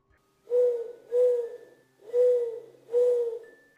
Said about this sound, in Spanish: Sí, bueno, lechuza. Lo tocaremos a profundidad aquí, así que la lechuza. Lechuza vuelve.